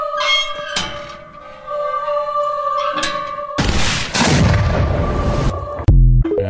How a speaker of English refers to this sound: No, of course not, because there was an implosion. We'll show an animation of what that implosion looks like.